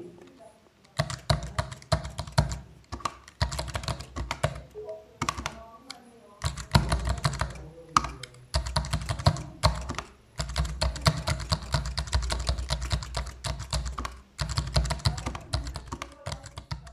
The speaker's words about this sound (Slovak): No a skúsime ešte písanie na samotnom riadku za použitia brajlovej klávesnice samotného riadku.